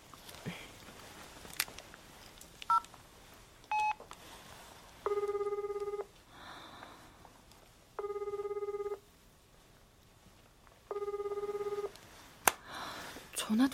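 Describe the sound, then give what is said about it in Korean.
A few short dialing beeps are followed by three evenly spaced telephone ringback tones as someone phones a teacher who is late for practice. Each tone is a steady buzzy purr lasting about a second, with quiet pauses between them. The call goes unanswered. “잠깐만 전화 한번 해볼게.”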